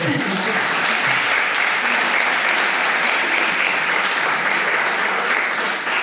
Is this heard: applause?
yes